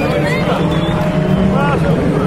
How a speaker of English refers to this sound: Oh, here are the cars. There they go, the dummy grid. They go round for the warm up lap.